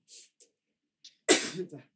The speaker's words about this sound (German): Entschuldigung. Gesundheit.